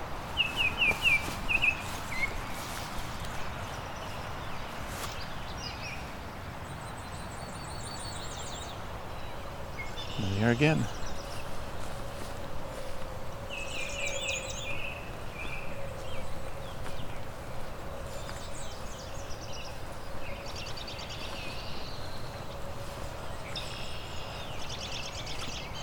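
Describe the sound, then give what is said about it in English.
A thin, very high-pitched songbird song from a colorful bird, yellow with black streaks, orange on the face and black on the head, repeats in several short, faint phrases over steady outdoor background hiss, with one brief spoken remark partway through. “It's a very subtle song but it's a very colorful bird.”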